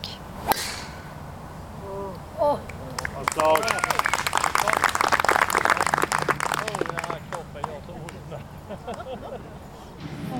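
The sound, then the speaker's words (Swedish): A single sharp crack of a golf club striking the ball on a long drive during the final 18-hole round of a golf tournament, with an easterly wind blowing, followed a moment later by a swelling crowd murmur and scattered clapping that lingers, with voices chattering throughout. “så går det ett sus genom publiken när han får iväg ett långt slag.”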